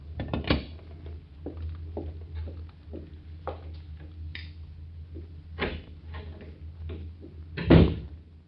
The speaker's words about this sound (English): No, but I counted the clicks as he was dialing that number.